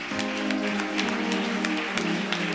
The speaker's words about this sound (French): Alors, je veux que tu portes une forte acclamation à Jésus-Christ pour leur vie.